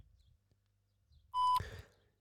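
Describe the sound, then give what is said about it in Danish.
A single steady electronic voicemail beep, loud, holds for about a quarter second over a faint low hum before a message is recorded, then cuts off into a brief burst of noisy clatter that fades out. “Indtal din besked Sked. efter tonen.”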